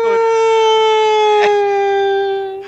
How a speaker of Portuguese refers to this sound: Que porra é essa, sério? O que é? Isso é um toque de celular. É, macho. Tá certo. Caralho, eu pensei que tava passando ambulância aí no seu, na sua eu rua.